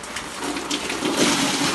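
A steady, fairly loud rush of rainwater pours continuously for a couple of seconds in one sustained gush as someone tips it off an awning.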